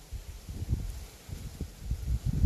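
Soft, irregular rustling outdoors, rising and falling in gusts with a low rumble of wind buffeting, growing slightly louder toward the end; no voices.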